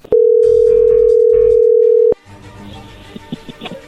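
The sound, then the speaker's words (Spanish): As a phone number is dialed once more, a steady, loud single-pitched telephone tone holds for about two seconds, then cuts off abruptly into faint line noise and a few soft clicks as the call connects. “A ver, márcale una vez más.”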